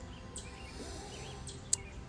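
A bird chirps nearby, with faint warbling notes and one sharp, high-pitched chirp near the end, set against a quiet, steady outdoor background with no talking.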